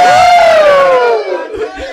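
A large crowd roars and cheers, led by one loud sustained shout that slides down in pitch, then settles into dense overlapping chatter and scattered yells.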